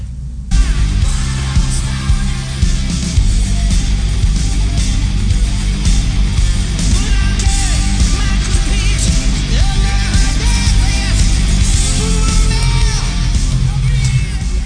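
A loud, dense rock song from 1987 plays continuously, with heavy low-end drums and bass under distorted guitars and shouted, energetic vocals throughout.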